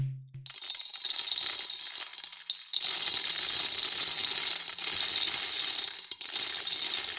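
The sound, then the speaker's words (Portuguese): 270 coffee beans fall and rattle continuously in a dense, bright clatter, starting after a brief low tone, dipping for a moment, then surging into a steady, louder pouring rattle with no voices. “É o nosso jeito de representar em áudio, com grãos de café, o crescimento da população do Rio.”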